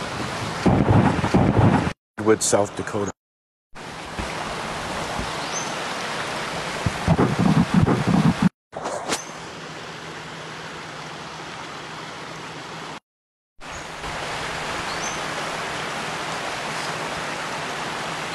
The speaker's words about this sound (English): So um, let you guys just enjoy this beautiful little creek here,